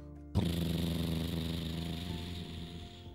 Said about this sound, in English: As the school bus pulled away, all the kids' parents were waving goodbye.